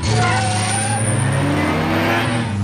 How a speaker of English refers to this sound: Driving around in the car in Hollywood was was pretty hilarious. The Lotus.